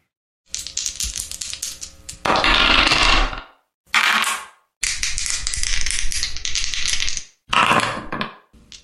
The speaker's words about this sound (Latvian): Kas tā bija par skaņu? Hmm. Kas tas varētu būt? Kur tie ir metamie kauliņi? Jā, tā, nu ir, jā, jā, tie ir metamie kauliņi.